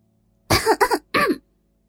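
A couple of short, voiced coughs with a throat-clearing quality, made to signal someone's arrival, the first a quick double burst and the second a single push a moment later, fairly loud against a quiet background with no talking.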